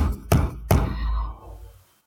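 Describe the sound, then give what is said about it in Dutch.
Two heavy, booming thumps on a room door as a large tavern owner pounds with a fist about half a second apart, each leaving a low resonant rumble that fades out. Loud, with no voices. “En die bonst ook op de deur.”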